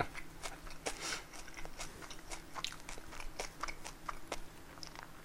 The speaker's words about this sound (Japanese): ステレオでステレオで咀嚼音取ったら ASMR だけど